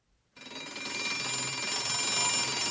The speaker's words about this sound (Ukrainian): цей звук лунав не з екрану. Це будильник у відчиній кишені.